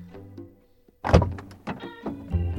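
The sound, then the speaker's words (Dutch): A solid car door of a large Mercedes thuds shut once as someone gets in, followed by softer shuffling and faint mechanical whirring inside the vehicle. “en, en nou, vervolgens ging ik in die auto zitten.”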